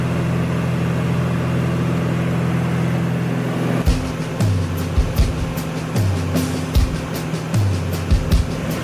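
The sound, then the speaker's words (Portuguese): A small propeller airplane engine drones steadily with a deep, humming tone; midway, repeated sharp knocks and rattles join in while the engine pitch dips and recovers in a loose rhythm. “Esse avião é seguro?”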